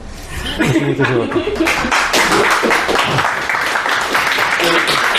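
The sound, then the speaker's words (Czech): An audience applauds loudly and steadily at the end of an evening talk, a dense wash of many hands clapping, with a few voices and some light laughter mixed in near the start. “Já vám taky zatleskám.”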